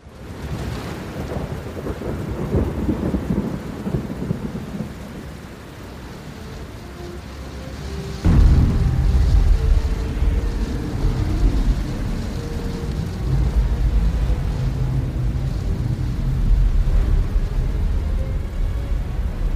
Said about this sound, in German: Plötzlich brach auf dem See ein heftiger Sturm los, sodass das Boot fast von den Wellen begraben wurde.